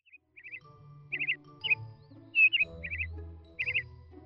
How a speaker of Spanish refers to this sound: Todas las mañanas levanto la cortina de la ventana y busco en las ramas de los árboles a los pájaros que han llegado de diferentes partes del mundo.